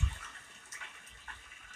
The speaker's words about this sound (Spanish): Hoy aquí bajo la lluvia en la calle